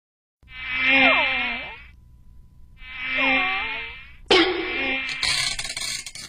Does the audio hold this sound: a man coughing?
no